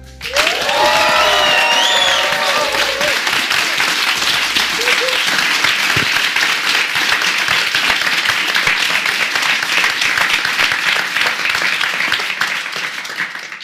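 Live audience applause as the guests of the evening are welcomed, a dense steady roar of many hands clapping, with whoops and cheers rising early on before settling into sustained clapping that holds loud throughout.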